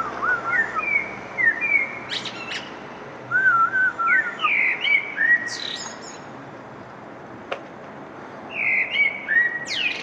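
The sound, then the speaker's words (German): Birds chirp and whistle in short, bright phrases over a steady outdoor background hiss, several calls overlapping with brief pauses between bursts, recorded on a balcony in early spring. “Ein Vogelgezwitscher, das ist ja schon Biolarm”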